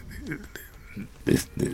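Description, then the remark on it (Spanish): A voice imitates a pig, making a few rough, snorting grunts, with the last two bursts the loudest and harshest. “¿Qué hacen los puercos tú? Gruñir.”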